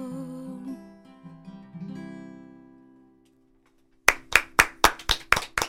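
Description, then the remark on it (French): After a fading melodic tone and a short silence, about seven loud hand claps ring out in a quick, steady rhythm, one person applauding after a song. “Oh my God, je m'as même applaudir.”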